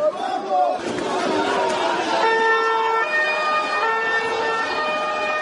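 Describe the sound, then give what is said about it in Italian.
Emergency sirens wail steadily over a loud, chaotic crowd during a riot in the streets of Rosarno, Italy, in January 2010, with shouting voices and street commotion filling the background throughout, the siren tones growing clearer and more sustained midway. “Voci e rumori della rivolta. Per le strade di Rosarno, spranghe, violenza e sirene sono i primi giorni del gennaio 2010.”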